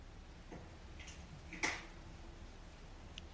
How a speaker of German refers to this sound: Und im Hintergrund hörst du das Feuer knistern.